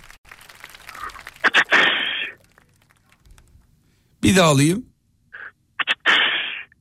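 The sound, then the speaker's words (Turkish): A voice imitates a whip crack twice: a sharp clicking burst followed by a hissing swish, loud, with a short spoken phrase between the two attempts. “Kırbaç sesi”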